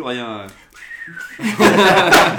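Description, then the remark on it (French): A person whistles a short, bending tone in imitation of an astromech droid's beeps, preceded by a voiced tone and followed by loud laughter and chatter. “simplement le sifflement.”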